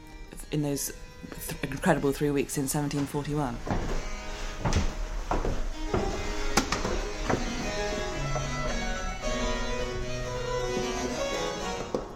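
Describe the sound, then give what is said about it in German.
Original wooden stairs from Handel's time at the Handel House Museum in London creak and groan underfoot, with a run of strained squeaks early on and scattered knocks and footfalls continuing over a low hum. “Die Holzstufen, die unter unseren Füßen knarren, sollen noch original Händel sein.”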